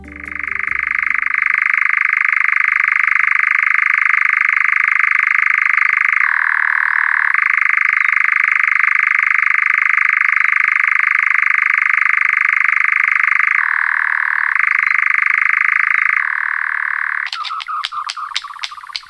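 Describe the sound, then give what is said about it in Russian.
A European nightjar churrs in one long, loud, unbroken mechanical trill that dips in pitch a couple of times, then breaks into a few stuttering bursts at the end. No voices. “И, собственно, Казадой звучит вот так”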